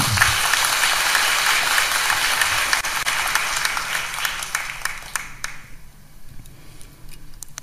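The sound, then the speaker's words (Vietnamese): Loud, dense applause from a large audience filling halls on three floors, including the main shrine hall, for a teacher's talk; a steady wash of many hands clapping that gradually thins and fades out over the last couple of seconds, leaving a few scattered claps. “thì ở trên lầu 3 cũng có một phần nữa hội trường lầu 2 thì đại ấp và ở từng chánh điện của lầu 1 là đầy ấp hãy cho một tràng vỗ tay thật lớn”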